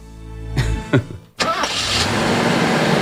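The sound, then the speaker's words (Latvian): A car engine cranks with a couple of sharp starter bursts, briefly cuts out, then catches and settles into a steady running rumble. No one speaks. “Slāpē nost! un nāc pie mums garāžā.”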